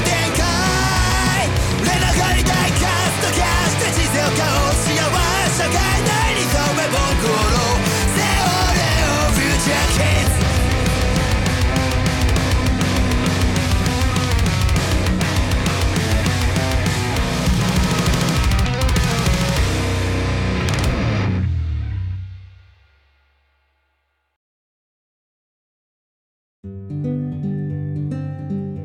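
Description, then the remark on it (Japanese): A loud, intense song with dense, driving instrumentation blasts for about twenty seconds, then cuts abruptly to silence before another burst of sound starts near the end. “聴いていただきましたけれども、はい、だいぶ激しいサウンドでそうなんですよね”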